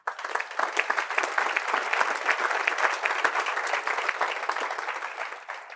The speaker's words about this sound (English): Everybody here gave up the sure thing, the job, the nine to five, the brokerage to open a gym to help people. That's tremendous. I want you to give yourself a round of applause.